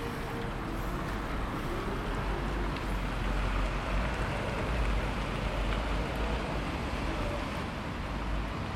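Steady city street traffic noise at traffic lights in Tampere, Finland, a continuous low rumble of engines under a broad hiss, holding an even level throughout with no distinct horns or voices standing out.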